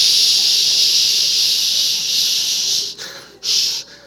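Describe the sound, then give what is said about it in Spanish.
A voice imitates the hiss of television static at 3 in the morning, standing for angry Carioca Portuguese from Rio de Janeiro, with a loud, steady, bright "shhh" held for several seconds, broken by two quick catches for breath near the end. “es como escuchar la televisión a las 3, a las de la mañana.”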